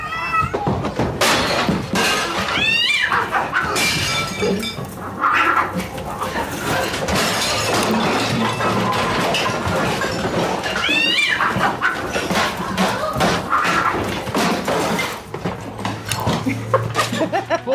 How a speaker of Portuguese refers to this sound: Só um minuto aqui, tá acontecendo uma treta com os meus gatos.